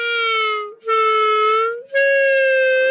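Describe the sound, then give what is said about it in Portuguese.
Three long, shrill reed-like notes honk out one after another with brief gaps, loud, as someone secretly tries blowing his father's clarinet, squeaky like a beginner, each tone held steady and slightly wavering in pitch. “Um dia, agarrou as escondidas no clarinete do pai e experimentou soprar.”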